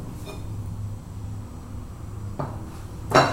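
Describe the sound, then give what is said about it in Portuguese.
Dishes being washed: a steady low running hum, a single knock midway, then a bright clatter of dishware near the end. Nobody speaks. “Lavar louça é apesar de desagradável às vezes, é uma terapia de fato.”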